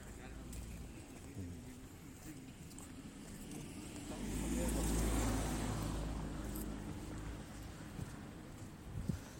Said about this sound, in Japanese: ちょっと車の音がうるさいですもんねちょっと外れたとこに行こうかな